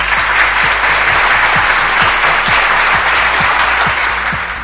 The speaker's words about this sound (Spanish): Más aplausos, de verdad, más aplausos que los merecidos.